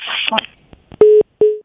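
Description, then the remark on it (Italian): Two loud, steady telephone line beeps at a single mid pitch, evenly spaced like a busy or disconnect signal, after a listener's phone call dropped, following a brief burst of muffled voice and line noise. “forse è caduta la linea, vediamo eh,”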